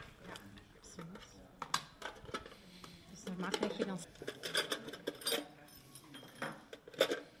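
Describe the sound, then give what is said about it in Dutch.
Small metallic clicks, clinks and rattles of a key lockbox being opened and handled by a tourist office employee, irregular and busy, with a voice speaking intermittently alongside. “Daar is ze dan, de fameuze bus.”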